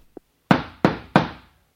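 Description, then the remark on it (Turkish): Three firm knocks on a wooden door in an even rhythm, fairly loud, each with a short resonant decay, preceded by a faint small tap. No voices. A poor, hungry man knocks at the home of the Prophet's household at iftar time during Ramadan. “Derken kapı çalınıyor.”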